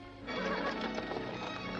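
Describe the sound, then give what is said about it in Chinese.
A horse lets out a loud, shaky whinny that starts after a brief pause and carries to the end, over the steady clip-clop and rumble of a hired horse-drawn carriage following another carriage headed to the train station. No one speaks. “杰给知道以后，也雇了一辆马车尾随而去。”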